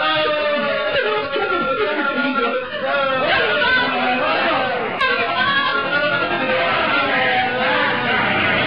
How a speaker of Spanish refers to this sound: Pero la voz de la hermosa rubia se ahogaba con los gritos jubilosos de los marinos que celebraban el que los contendientes ya estuvieran en lo alto del mástil.